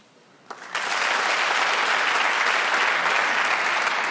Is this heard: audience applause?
yes